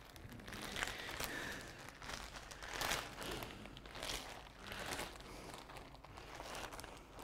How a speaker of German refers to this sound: 35 Liter. Das ist ein Gebührensack. Der Müll für da drin, der ist schon zahlt.